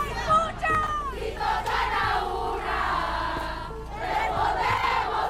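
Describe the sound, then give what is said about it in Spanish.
A protest crowd on March 8, International Women's Day, chants slogans together, many raised voices blending into a steady, loud roar with rising and falling swells, shouted phrases carrying over the mass of sound. “Bien, este son eh, algunos de los cánticos que se escuchaban ayer, 8 eh, de marzo, Día Internacional de la Mujer.”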